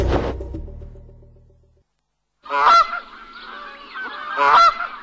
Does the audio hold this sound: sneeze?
no